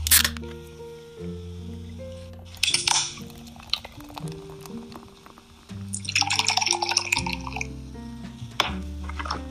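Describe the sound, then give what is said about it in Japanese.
Cans of Sapporo Classic beer, sold only in Hokkaido, being cracked open, a few sharp metallic clicks each followed by a short fizzy hiss, spread out over several seconds with soft steady music playing underneath. “じゃあ、それを各々今から開けてですね、楽しんでいきましょう。”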